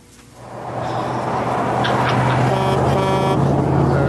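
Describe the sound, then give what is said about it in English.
A heavy truck engine rumbles steadily as the truck drives, swelling in after a brief quiet start, with a whining, grinding tone of gnashing gears rising over the drone partway through. No one speaks. “another truck driving.”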